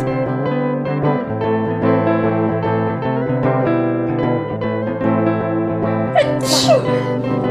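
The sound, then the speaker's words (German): A single sharp sneeze from a person with hay fever bursts out near the end, cutting through steady background music that plays throughout. “Gesundheit.”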